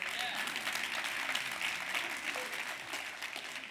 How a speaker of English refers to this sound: Yeah, you, you clap at that.